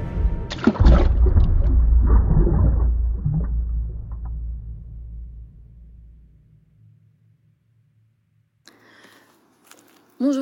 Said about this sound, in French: Enfin, je m'arrête devant une flaque. Je sais que c'est celle-là. J'ai un peu peur. Je prends une grande respiration. Et je plonge dans l'eau.